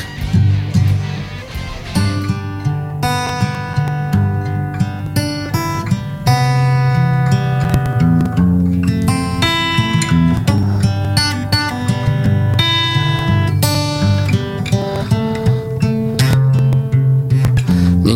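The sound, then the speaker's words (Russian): A guitar plays a blues tune loudly, with a steady bass line under plucked chords and melody notes, continuing without pause and with no voices. “Но вот я сейчас играл голубая музыка.”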